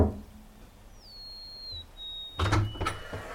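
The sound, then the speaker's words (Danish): A few sharp, fairly loud knocks on the front door of a house in Roskilde, Denmark, after a quiet stretch with a faint high-pitched squeal. No one speaks. “Lad os prøve at banke på og se, hvad der sker.”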